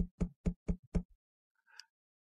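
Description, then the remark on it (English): Light knocking on a door: five quick, evenly spaced raps and a couple of softer trailing taps, distinct, then near-silence with a faint brief noise afterward. “I heard this knocking at the door. It's just a light tapping.”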